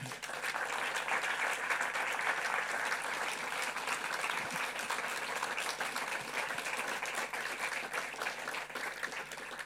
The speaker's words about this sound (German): Also einen echten Applaus